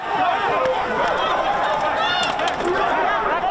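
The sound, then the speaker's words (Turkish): A loud, dense street crowd in the United States, thousands of people out in the streets after Biden was declared president, many overlapping voices shouting slogans and singing together in a continuous roar that never lets up, with a brief car horn sounding early on. “Korna sesleri, slogan ve şarkılara eklendi. Amerika Birleşik Devletleri'nde sokaklar bu şekildeydi.”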